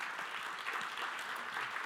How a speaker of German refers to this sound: Mein Assistent ist nicht nur Assistent, sondern er hat auch eine fantastische Geschichte. Geben Sie ihm einen herzlichen Applaus zum zweiten Mal.